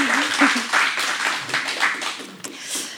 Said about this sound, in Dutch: Ik zou zeggen, geef er een groot applaus.